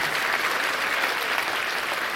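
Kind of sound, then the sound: crowd, audience hand clapping applause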